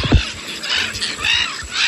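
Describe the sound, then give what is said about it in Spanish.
Harsh, high squealing gull calls in Madrid, an inland city, come in several overlapping bursts over a steady background hiss, with a low thump near the start. “Que son gaviotas en ciudades de interior, como Madrid.”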